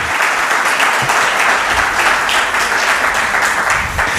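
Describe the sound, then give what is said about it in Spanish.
An audience at a radio broadcast held at the Archaeological Museum of Alicante breaks into steady, sustained applause for guests being introduced, a dense wash of many hands clapping at an even loudness throughout, with no voices rising above it. “Eh, si quieren dar un, un aplauso para que se, se hagan presentes ante la audiencia de mucha gente.”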